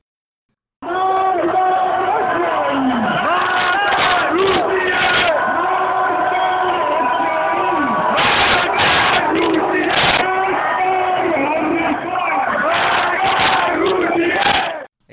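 A large crowd in a 2009 video chants slogans in loud unison, rhythmic shouted phrases repeating back and forth: a leader calls "Death to Israel" and "Death to America" and the mass of voices answers "Death to Russia, death to China", sustained and dense throughout.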